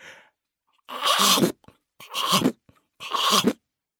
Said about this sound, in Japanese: 一匹の大きいサメが海賊船を噛んでいましたカンカンカンカンうまいな海賊船はチョコよりうまいぜ。